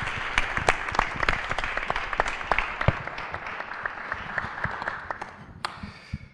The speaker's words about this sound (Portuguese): Muito obrigado, Afonso Reis Cabral. Uma salva de palmas para o nosso escritor.